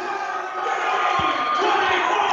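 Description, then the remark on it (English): A large crowd at a volleyball match cheers in a continuous, dense roar that swells slightly toward the end, with a couple of dull low thuds beneath the noise, re-energized by a run of mistakes by Carmel. “This, this little run right here mistakes by Carmel have, definitely re energized the crowd and brought them back into it, which is something that uh, the Lions are definitely feeding off of.”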